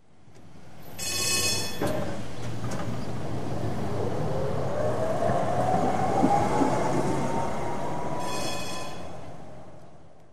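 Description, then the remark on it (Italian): A Line 4 tram rumbles steadily along its rails, fairly loud, with a rising whine from the motor or wheels and brief high metallic tones near the start and end, then fades. “Oggi sul tram Radio Linea 4 incontreremo due pillole di libri e una pillola poetica.”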